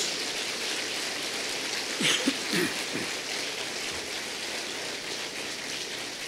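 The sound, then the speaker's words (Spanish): An audience applauds with steady, dense clapping that holds at an even level throughout, while a few brief voiced shouts or cheers rise out of it near the middle. “Denle un aplauso.”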